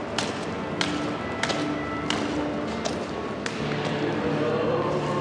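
A cane tip taps against stair edges in a steady series of sharp, light clicks, about one every half second, over a constant background murmur of ambient noise.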